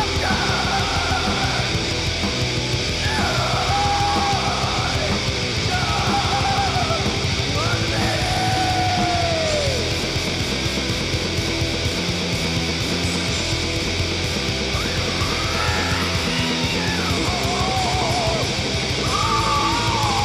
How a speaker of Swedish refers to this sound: Det finns på Youtube, man kan höra getter som ja, låter exakt sådär faktiskt. Det är någon som har gjort en rolig så här, eh, en get som skriker på varje wow